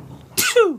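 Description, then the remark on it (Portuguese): A single sharp sneeze: a sudden breathy burst followed by a brief voiced, falling 'choo', with no talking around it. “Não é Covid, não, gente, socorro. Saúde.”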